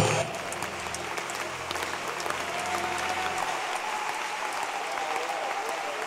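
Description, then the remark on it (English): A church audience, standing, claps their hands for Jesus in sustained, dense applause, a steady wash of overlapping claps at a fairly even loudness, with a low hum underneath for the first few seconds. “As I, I hope as for clapping, you know how to clap.”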